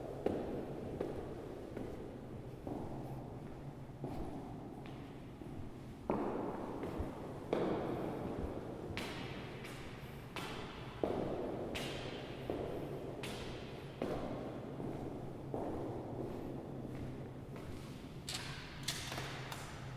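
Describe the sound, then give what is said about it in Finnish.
Steady footsteps walk through an indoor space in the Sirkkala barracks in Turku, Finland, heading to the top floor, each step a distinct thud with a short reverberant tail, falling in a regular rhythm against a low background hum. “Mä kävelen siellä ensimmäiseksi Sirkkalan kasarmin ylimpään kerrokseen.”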